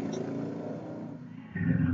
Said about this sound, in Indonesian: motornya luar biasa guys ya kan Kan?